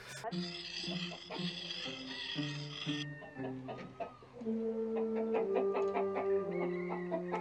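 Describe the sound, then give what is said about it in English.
Chicken clucking comes in short, repeated bursts over a stylized version of Old MacDonald, a steady musical backing of sustained, shifting tones, as a woman carries the chicken to be beheaded. Everything stays fairly loud throughout, with the clucks growing busier in the second half. “it does sort of get kind of morbid with the whole chicken beheading”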